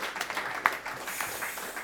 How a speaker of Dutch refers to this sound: Dan krijg je ook applaus hè, als je zo opkomt.